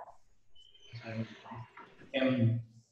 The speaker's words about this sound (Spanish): Se escucha ahí por, ahí un perrito.